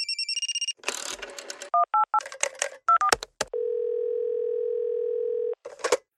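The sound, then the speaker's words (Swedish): A phone number is dialed with quick touch-tone beeps to call someone in Nässjö, followed by rattling handset noises, more paired tones, and a long steady dial-type tone before a brief clatter at the end. “Men idag ska vi ta och ringa upp min son och fråga honom hur det är i Nässjö.”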